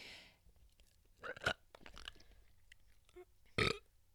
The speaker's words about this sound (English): I just fucking puked a bean up in my mouth. I could I could feel that.